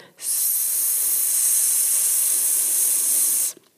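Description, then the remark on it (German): A single long, steady hiss made with the mouth to slow a cantering horse, a sustained "ssss" lasting about three seconds at an even, fairly loud level, then cutting off abruptly. No other sounds. “Und dann habe ich ein Geräusch dafür, das ist so ein”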